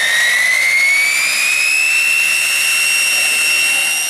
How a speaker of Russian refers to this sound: А еще его называли «свистком» за характерный звук работающих двигателей.